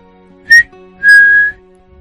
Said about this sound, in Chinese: 想都没想，就嘟起嘴唇，吹了声口哨。